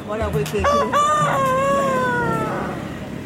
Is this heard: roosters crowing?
yes